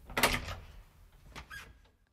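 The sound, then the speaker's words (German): The door to an adjoining room opens at the end of a simulated moon mission isolation study, with a broad scraping, rattling burst, then a second shorter clunk and a faint squeak as it settles, with no talking. “ehe es wieder zurück nach Moskau geht, sprich sich die Tür zum Nebenraum endlich wieder öffnet.”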